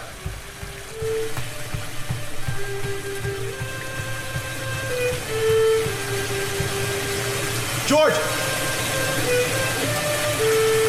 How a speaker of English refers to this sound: How, how do I shut off the water?